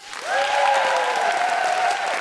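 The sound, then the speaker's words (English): An audience breaks into a full round of steady, dense clapping for guest co-host Margaret Cabourn-Smith, joined by a long sustained whoop riding over the applause for the whole two seconds. “And uh, can I have a big round of applause for my guest co host, Margaret Cabourn-Smith?”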